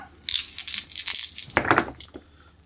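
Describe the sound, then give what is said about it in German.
Four dice rattle and clatter, a quick burst of hard plastic clicks shaking together, then tumbling and settling onto a surface with a few final taps. “So, vier Würfel.”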